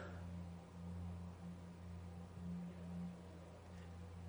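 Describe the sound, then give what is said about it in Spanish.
A car engine rumbles with a low, steady hum as the vehicle drives off, holding an even loudness for a few seconds with no voices. “Cuando ella sale por ahí, usted sale en el carro, room, y usted se va a pan y se parquea afuera.”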